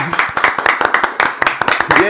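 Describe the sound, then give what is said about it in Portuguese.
A round of applause from a small group welcoming a guest, with dense, irregular hand claps rattling steadily throughout. Voices can be heard mixed in beneath the clapping. “Uma salva de palmas, família, hoje pro”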